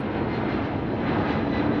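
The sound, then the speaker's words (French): A steady, loud roar of an airplane's jet engines on a 2010 flight from Paris to Canton, a dense continuous rushing drone that holds even throughout with no voices or breaks. “En 2010, j'ai pris l'avion pour Canton depuis Paris.”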